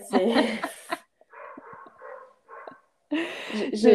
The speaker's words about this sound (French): Dis donc, les chiens, ils sont à fond là près de chez toi, Oui, oui, oui.